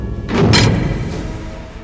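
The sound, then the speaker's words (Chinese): A heavy iron door slams shut with a single loud, booming impact, followed by a low metallic ring that slowly fades away. No voices are heard. “他还没弄清楚怎么一回事，身后就传来“砰”的一声，”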